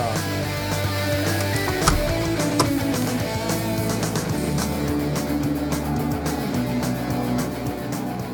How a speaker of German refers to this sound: So klingt's hier in Starnen. Und ey, es fängt an zu regnen. Ich bin raus und es fängt an zu regnen.